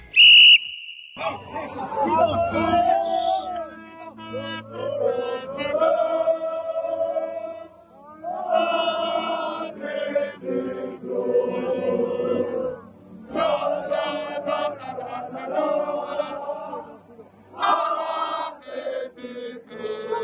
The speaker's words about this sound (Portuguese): Nesta edição começamos com o som do trompete de Vilha Libre após a vitória sobre o Barcelona.